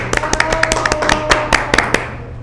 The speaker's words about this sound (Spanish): Te agradecemos y te mandamos Un aplauso.